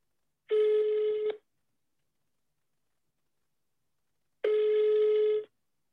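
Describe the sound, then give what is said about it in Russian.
An outgoing phone call's ringback tone sounds twice, each a steady buzzing tone lasting about a second with a long silent gap between, clear and fairly loud with no talking. “Звоним.”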